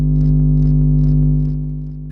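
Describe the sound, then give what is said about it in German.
A steady, loud electrical hum from an electric car charging station in a parking garage under the new Frankfurt old town, Germany, with strong low tonal bands and faint periodic hissy pulses above, fading slightly toward the end. “vor einer Ladestation für Elektroautos im Parkhaus unter der neuen Frankfurter Altstadt.”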